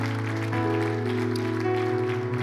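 An audience applauds the Lord steadily while sustained, low keyboard or organ chords hold underneath, the clapping forming a continuous patter over the steady tones throughout.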